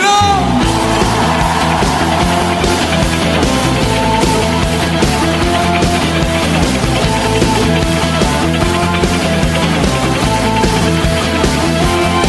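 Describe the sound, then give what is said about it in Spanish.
A large church audience lets out a loud, sustained roar of joyful shouting and cheering to God during worship, blended with full, continuous band music that carries on throughout without a break. “Todo el que tenga un Dios poderoso de un grito de júbilo.”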